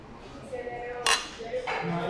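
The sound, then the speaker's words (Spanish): Glasses clink together in a toast at Cervecería Carmela, a brewery bar in Zapotlanejo, with a sharp clink and then a second one, over a low murmur of background chatter and room noise. “Comentarles a todos que estamos aquí en Cervecería Carmela, en Zapotlanejo. Estamos tomándonos ahorita una Marcen eh, muy, muy buena esta cerveza.”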